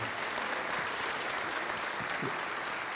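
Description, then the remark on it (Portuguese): An audience applauds the Lord for a couple asked to stand up: a dense wash of many hands clapping at an even, sustained level for the whole stretch, with no voices standing out. “Vamos aplaudir o Senhor por esse casal, por favor.”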